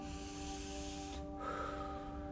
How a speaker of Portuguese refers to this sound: tome uma respiração bem profunda.